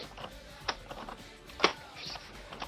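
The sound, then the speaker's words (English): Several locks on a door being unlocked: two sharp metallic clicks about a second apart, with faint rattling and handling noise in between and no talking. “Only a couple more locks to go.”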